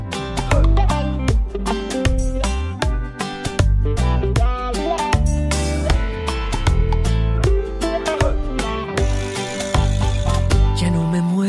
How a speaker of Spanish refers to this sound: Eso es, eso es lo que dice la canción. Sí, vamos a poner un poquito para escucharla, claro. Vamos Vamos a ver.